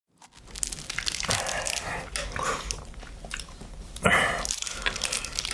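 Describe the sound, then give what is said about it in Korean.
Someone chewing and biting into bread, a steady crackly munching with a couple of sharper, louder tearing bites partway through. No voices. “아, 배고파. 아, 이빵 가지고는 밥이 안 뜨네.”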